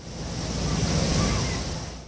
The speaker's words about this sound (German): Lange Schläuche ziehen sich am Boden entlang. Im Abstand von ein paar Metern sprüht mit wenig Druck Wasser heraus.